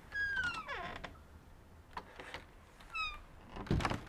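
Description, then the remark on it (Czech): A cat meows twice, a drawn-out falling cry at the start and a shorter one a few seconds later, with soft knocks and rustling noises in between and at the end. “Hm, tak ne, je to kočka.”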